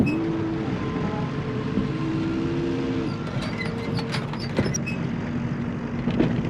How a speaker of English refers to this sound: So yeah, you can feel the, the box moving around. You can hear the, the truck engine. You can tell you're being driven somewhere and um, it doesn't take very long for it to reach its destination.